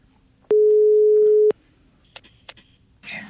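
A single steady one-second ringback tone of an outgoing phone call to the manager at Vetleflaten sounds loud and clear, followed by a few faint clicks and a brief burst of line noise.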